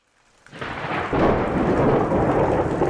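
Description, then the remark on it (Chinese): Heavy rain pours down in a dense, steady hiss over the low-lying Lujiahetou Shuixian Lane alleys of Hangzhou, China, swelling in after a quiet start and growing louder about a second in, with a low rumble of thunder underneath. No voices. “杭州本来就多雨，陆家河头水仙弄又处在杭州的低洼区域，下雨天是大家最犯愁的日子。”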